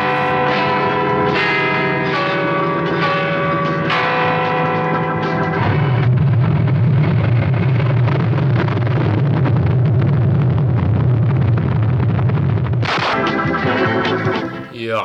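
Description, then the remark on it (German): Church bells ring loudly in overlapping peals, then a dense, rumbling barrage of fireworks booms beneath them for several seconds before the bells ring clearly again. “Mit diesem Feuerwerk und den Glocken.”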